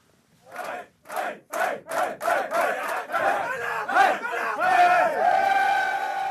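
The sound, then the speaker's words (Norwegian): Stavanger Oilers ice hockey players celebrate their win over Frisk Asker in Siddishallen, clinching the Norwegian elite league: loud group shouts in a rhythmic chant that speeds up, then swell into one continuous roar of cheering. “Endelig kunne Oilers-spillerne slippe jubelen løs.”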